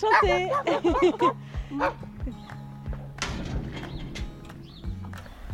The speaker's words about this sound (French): Et que c'est les petits chiens.